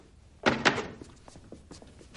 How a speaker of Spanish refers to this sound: Coge la silla y se sienta junto a Vanessa.